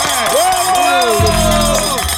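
A loud, steady burst of crowd cheering and applause fills about two seconds, with swooping whoops and shouts rising and falling over a dense wash of noise.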